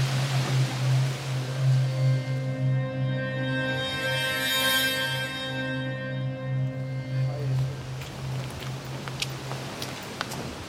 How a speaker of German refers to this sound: Doch nun droht der nächste Regenguss und sie müssen die Ausgrabung mit einer dicken Plane zudecken.